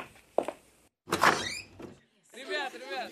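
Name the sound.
front door being opened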